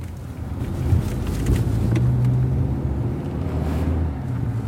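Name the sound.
car driving on road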